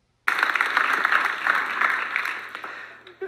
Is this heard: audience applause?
yes